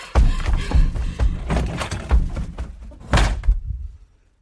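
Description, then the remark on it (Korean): A bedroom door is pushed shut and locked amid a series of dull wooden thumps and clunks, ending in one louder slam before the sound fades to silence. No one speaks. “나는 서둘러 현장을 벗어나 내 방으로 들어와 문을 잠갔다.”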